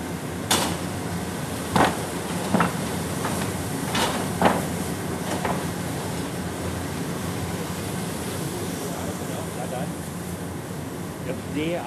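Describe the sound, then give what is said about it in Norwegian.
A large coal-fired coffee roaster standing in the middle of a museum café runs while freshly roasted coffee, just out of the roaster, cools, giving a steady churning whir. Half a dozen sharp clanks and rattles cut through it during the first five seconds. “Ja, det var en eh, kaffebrenner og avkjøling av kaffen som foregikk.”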